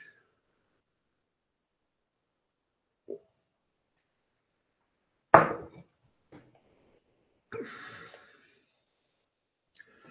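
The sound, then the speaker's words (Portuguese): Someone taking a sip of water: a soft tap, then a sharp clunk of a cup or bottle, a brief wet slurp and swallow, separated by quiet pauses, with no talking. “Um minutinho que eu vou tomar uma aguinha aí.”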